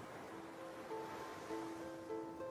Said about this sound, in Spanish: Se apresuró para ponerse a salvo de una siguiente ola que se acercaba.